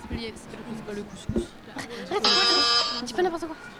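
A quiz buzzer sounds once, a steady harmonic electronic tone lasting about three-quarters of a second, loud over ongoing chatter and some laughter.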